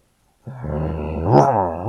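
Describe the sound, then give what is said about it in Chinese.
After a brief silence, a watchdog lets out one sustained, harmonic growl that swells into a louder snarling bark at a fox, and then eases slightly. No one speaks. “这时候，看门狗突然把脑袋伸了出来，对他大叫道。”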